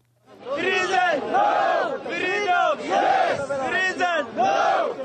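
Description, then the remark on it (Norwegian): A crowd of African protesters in Israel chants the slogan "Freedom yes, prison no" in unison, loud and rhythmic, with the same short phrase repeated about four times in steady rising-and-falling bursts. “Frihet ja, fengsel nei, roper disse afrikanerne.”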